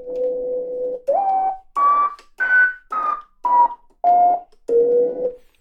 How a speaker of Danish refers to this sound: Ved at styre hastigheden, kan jeg få den her tone til at sige det er to-tre oktaver under.